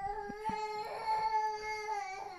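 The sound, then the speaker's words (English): A baby cries in a sustained, high-pitched wail with a steady tonal pitch and a few short catches in breath, fairly loud and continuous with no talking over it. “Thank you, baby, for demonstrating what an evil spirit might sound like.”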